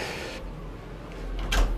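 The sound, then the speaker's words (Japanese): A bathroom ventilation fan's steady airy whir, which is fairly loud, fades down early on, then the bathroom door is pushed shut with a single soft thud and brief scrape near the end. No one speaks. “風呂のドアを閉めるこの換気扇の音がね音が結構うるさいんで”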